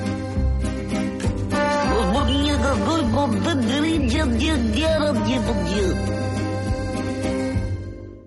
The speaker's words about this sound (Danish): Og det er altså jinglen, som præsenterer emnet Gerard Depardieu.